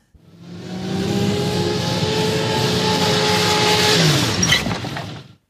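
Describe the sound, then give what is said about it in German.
A Porsche sports car engine drones steadily and loud, its pitch dropping as it slows while turning onto a wide driveway, then brakes hard near the end with a brief high squeal before cutting off. “Er lenkte den Porsche auf die breite Zufahrt und verlangsamte das Tempo.”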